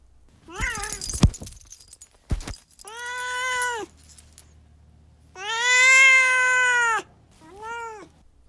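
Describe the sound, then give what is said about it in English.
The cat Duarte meows repeatedly: a few short chirpy calls amid some clattering, then three loud meows, the middle one long and drawn out, with no one talking. “Speaking of which, now it's time for Duarte's Corner, where my cat Duarte will once again weigh in with his opinions about the book.”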